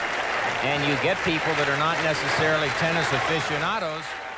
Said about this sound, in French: Les joueurs, eux, sont convoqués au milieu du terrain sous les cris de la foule qui réclame l'annulation du jeu de pénalité infligé à Mastel.